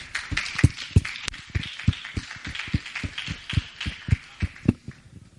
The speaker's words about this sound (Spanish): O sea que un primer aplauso es para vosotros.